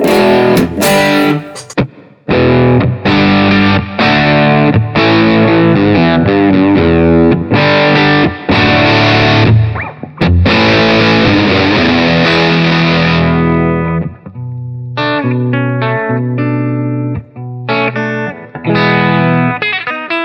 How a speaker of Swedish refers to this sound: Eh, för, då har jag, jag har både reverb och tremolo och, eh, och dessutom så kan jag kan, eh, kan åstadkomma oljud och jag kan ha helt vanliga ljud också.